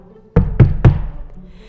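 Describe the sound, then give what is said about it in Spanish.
Three firm knocks on a wooden door in quick, even succession, fairly loud, followed by a short fading resonance and quiet room tone. “Pronto escuchó que tocaban a la puerta.”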